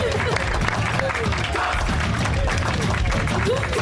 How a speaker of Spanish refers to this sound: Un aplauso por ese piloto. Un aplauso por ese piloto que aguantó.